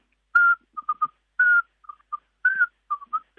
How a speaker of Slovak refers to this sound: To je hlas kulička vrabčieho najmenšej sovičky, ktorá je malá, trocha väčšia ako vrabec, možno ako taký škorec